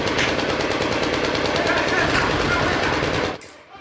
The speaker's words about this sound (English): They'd stopped the first bomber before he reached the entrance to our building, and by now, every weapon within reach was firing.